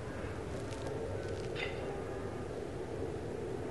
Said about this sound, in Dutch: Nou, je hoort het vliegtuig inderdaad.